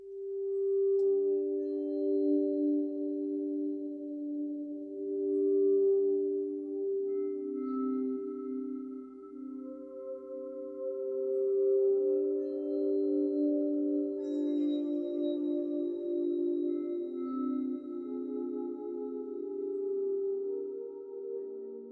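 An ambient song of sustained, layered synth tones drifts slowly between low droning notes, holding a steady, moderately loud level with no voices throughout.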